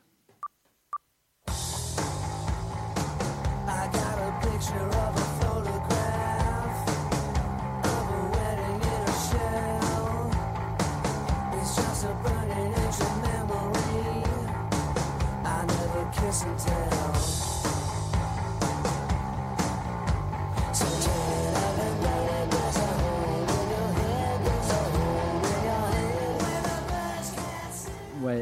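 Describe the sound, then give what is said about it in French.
A brief near-silent start with a few clicks gives way to a loud, dense pop-rock song with a full band and a steady driving beat, playing continuously to the end. “Les trois singles tirés de cet album seront aussi classés dans différentes charts du Billboard Magazine. Un petit extrait pour vous donner un aperçu.”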